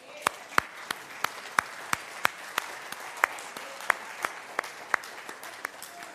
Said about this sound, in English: And so, for all of you that serve downstairs and, and help out with the children, we're glad that you have this opportunity to have this break on this Sunday, and we applaud you and your service.